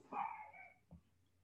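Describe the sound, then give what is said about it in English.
A dog barks faintly because someone is at the door: one drawn-out, slightly whiny bark followed by a short, softer yip, with no talking. “Um, if you hear a dog barking, it's because someone's at the door.”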